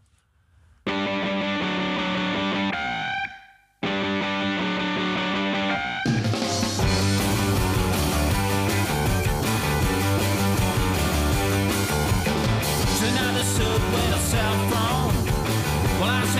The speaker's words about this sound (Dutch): ik zal even nu een nummer draaien waar ook nog wel eh, punk, zowel in de, mm, in de muziek als ook al in de tekst nog wel punk uh, echo's klinken of oude punkliefde.